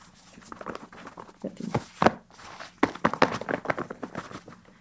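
Split-leather gloves and a bundle of feathers are shaken to imitate the wings of birds flying, making an irregular run of soft papery flutters and thumps that rise and fall in loudness, with no talking.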